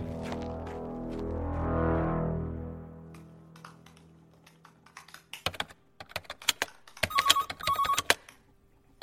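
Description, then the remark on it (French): A mobile phone, called from a hidden number, rings with two short, bright electronic ringtone bursts near the end, after a low swelling hum and a run of quick tapping clicks. No one speaks. “Ah, je décroche pas si je sais pas qui c'est.”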